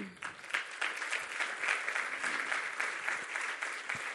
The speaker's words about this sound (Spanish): Estoy tan, tan feliz de ver cómo Dios usa a los diferentes equipos, a los diferentes voluntarios acá dentro de la iglesia, porque no les damos un fuerte aplauso.